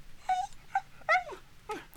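A dog whines desperately in a series of high, wavering cries, about four short yelps and whimpers rising and falling over two seconds, with no voices. The uninjured dog is on the other side of a path, unable to reach its people because a tree blocks the way.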